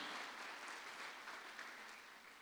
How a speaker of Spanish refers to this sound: Dele palmas al Señor, pues, dele palmas al Señor.